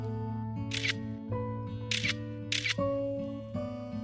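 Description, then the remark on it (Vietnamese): Three crisp phone camera shutter clicks, the first one alone and the last two closer together, as a phone photographs an entrance gate and a dark hallway, sounding over a steady, sustained musical tone with shifting notes. “lấy điện thoại để chụp lại cổng ra vào và dãy hành lang tối.”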